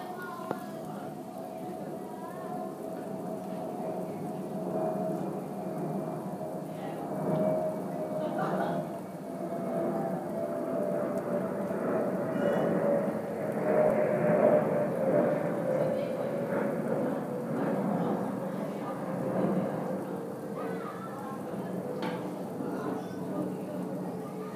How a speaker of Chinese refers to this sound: 音频三：飞机与下水道。